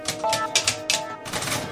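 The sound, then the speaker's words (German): An old typewriter, left standing in an Art Nouveau house and sticking a little with age: keys clack in a quick, uneven burst of several strikes, fairly loud, with a faint metallic ring between hits and no voices. “Alte Schreibmaschine steht ja noch rum.”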